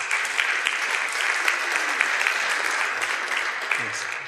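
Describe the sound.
A crowd applauds steadily, a dense wash of many hands clapping at a constant, fairly loud level, with a few brief voices cutting through near the end.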